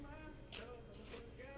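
crunching potato chips

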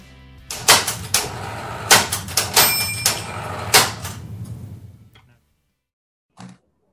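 typewriter typing

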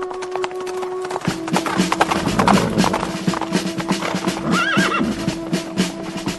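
horses' hooves clip-clopping

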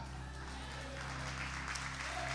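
audience applauding

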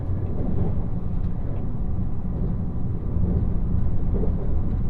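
shinkansen bullet train running

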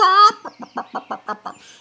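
chicken clucking

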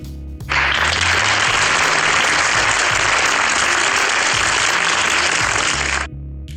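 applause

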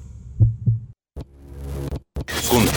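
heartbeat

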